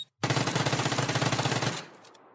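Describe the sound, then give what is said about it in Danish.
A rapid burst of automatic gunfire, loud, firing in a fast steady rhythm for about a second and a half before cutting off into a brief fading echo. “Okay, Kim, siger du, at vi skal gå i gang med... De, de skud.”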